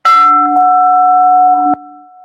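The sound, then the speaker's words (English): A meditation bowl is struck once during a guided meditation, a bright attack followed by steady, sustained tones that ring on, with a faint second tap near the end as the resonance continues. “Pay attention to the sound of my voice and the sound of the bowl.”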